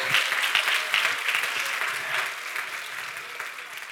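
An audience claps steadily, producing a dense, continuous patter of many hands with no pauses or audible voices, staying fairly loud and even for the full four seconds.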